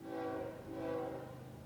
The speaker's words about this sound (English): Trains still roll through, whistles blowing, making buildings tremble.